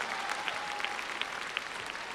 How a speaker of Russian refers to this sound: Спасибо, И наши спасибо за эту праздничные прекрасную песню. аплодисменты. За ваши аплодисменты, дорогие зрители.